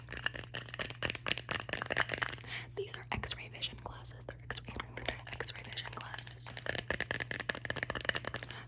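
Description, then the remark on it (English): Steady crinkling and rustling of a plastic Ziploc bag, used as gift wrapping and holding a pair of glasses, being opened and handled, with a soft whispering voice underneath throughout. “Okay, the next Ziploc bag that I have for you has a pair of glasses.”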